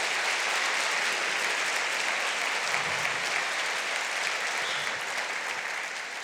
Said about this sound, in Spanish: Amén. ¿Y por qué no le aplaude al Señor?